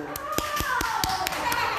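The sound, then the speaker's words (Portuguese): A group of children clapping at a CEMEI, in uneven, scattered rhythm, several sharp claps over steady chatter and young voices in the background. “Palmas, pessoal!”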